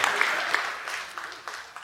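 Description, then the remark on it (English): A crowd claps steadily for a couple of seconds, a dense, bright patter of many hands with a few sharper claps standing out, fading slightly toward the end. “Oh, that was, that was clapping ground.”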